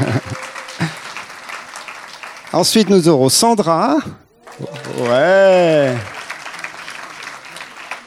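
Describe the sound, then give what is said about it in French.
An audience applauds steadily to encourage a preacher, a dense crackle of clapping, while a voice speaks and loud, rising cheers and whoops break out over the clapping. “Déjà l'encourager et l'applaudir.”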